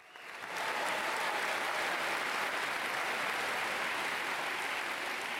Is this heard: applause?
yes